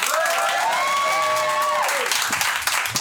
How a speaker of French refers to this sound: je vais vous passer vraiment du bruit, un tonnerre d'applaudissements pour le suivant,